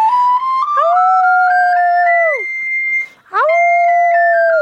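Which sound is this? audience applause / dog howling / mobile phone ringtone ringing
dog howling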